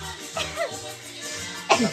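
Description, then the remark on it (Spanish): A single sharp sneeze bursts out near the end, preceded by a softer breathy vocal sound, with faint voices and a low background hum underneath. “salud.”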